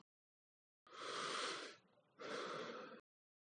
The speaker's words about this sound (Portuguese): Tento acalmar a respiração ofegante.